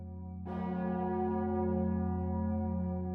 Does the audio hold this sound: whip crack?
no